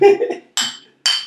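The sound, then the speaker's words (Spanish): Glasses clink together in a toast, three bright ringing taps spaced about half a second apart, fairly loud, with a low murmur of voices under the first one. “Salud.”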